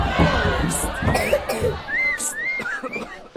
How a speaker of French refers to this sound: dès que les comédiens ont quitté la scène, le public se met tout de suite à bavarder. Ça crie dans tous les sens.